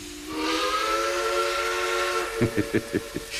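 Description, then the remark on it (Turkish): A loud, sustained steam train whistle sounds with a breathy hiss, followed by a quick series of rhythmic chuffs from the engine near the end. “Her bekçinin düdüğünde, her trenin çığlığında kara kız gelir aklıma.”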